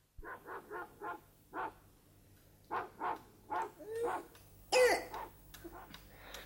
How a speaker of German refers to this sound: Seit wann hustet das Kind so? Seit heute Morgen. Die Temperatur ist auf 39 Grad angestiegen.